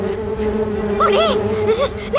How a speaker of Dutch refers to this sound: Cooper, Helena en de andere wespenmensen zwermden het kasteel uit en volgden de geur van de zoetigheid